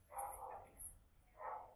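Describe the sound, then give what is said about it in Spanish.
Dogs barking in the neighborhood, faint, two separate barking bursts with a short pause between them, heard alone without talk. “Yo creo que los perros en el barrio de Muni saben que están, estamos hablando del hombre gato.”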